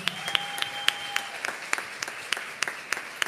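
An audience claps steadily as a pastor is called to the stage, with sharp individual claps popping out of the dense patter at a moderate level. A faint high sustained tone hums along during the first second or so.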